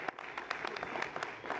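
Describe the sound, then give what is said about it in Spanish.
A crowd applauds its dancers on a television dance show, many hands clapping steadily in a dense, crackling patter with a few sharper claps standing out. It is fairly soft and continues throughout without any voices. “y que desde casa aplaudamos con mucho cariño a todos nuestros bailarines, nuestras bailarinas, muchas gracias.”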